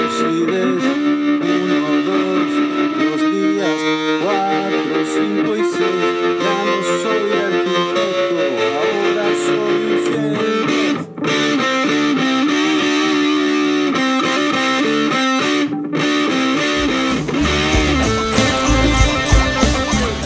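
Loud, distorted electric guitar playing sustained chords with a pulsing, wavering tremolo effect, used on a song's verse, continuous for about twenty seconds with brief dropouts and a thicker, busier texture toward the end.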